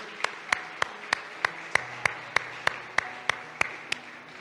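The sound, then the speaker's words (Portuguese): A church audience claps in steady unison as applause to Christ, about fourteen sharp, even claps at a brisk regular beat of roughly three per second, over a low background hum with no talking. “Ora sim, juntos em família, dê um aplauso a Cristo, el papá por excelência.”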